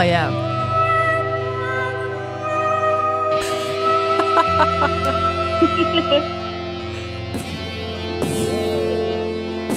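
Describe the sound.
A voice imitates gunshots, a rattlesnake, a locomotive, a horse and a harmonica, producing sustained droning tones with sharp bursting pops scattered throughout, loud, over a steady humming background.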